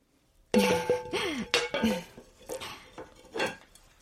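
A ceramic plate is set down over a frying pan holding an omelette, like a lid, giving a series of ringing clinks and clatters of ceramic against metal, several quick knocks over a few seconds.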